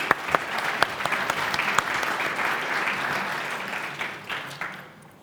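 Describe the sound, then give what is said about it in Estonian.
An audience applauds steadily, a dense wash of many hands clapping that carries on for several seconds before tapering off at the end. “teeme aplausi”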